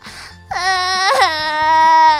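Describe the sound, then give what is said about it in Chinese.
A four- or five-year-old girl, a contestant on stage, sits down on the floor and wails and cries loudly. It is one long, sustained, high-pitched howl that rises sharply at the start, swells briefly, then holds steady and strong to the end. “刚一上台，便扑通一声坐在地上，嗷嗷大哭，哭声震天响。”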